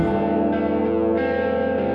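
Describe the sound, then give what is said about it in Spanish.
A loud, heavy bell tolls with a long, rich ringing sustain that fills the whole moment, its deep metallic hum shifting slightly as the tone decays, opening the rock radio show Pedimos Perdón. “Las campanas del infierno suenan y dan inicio a Pedimos Perdón.”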